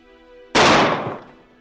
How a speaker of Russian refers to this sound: Грохнул выстрел, и господин Смит свалился со стула.